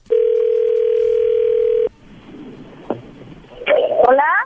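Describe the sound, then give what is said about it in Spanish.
A steady, mid-pitched telephone dial tone drones loudly for about two seconds, then cuts off into faint line hiss with a click, followed by a brief, wavering voice-like sound at the end. “Ustedes se callan, yo le voy a llamar.”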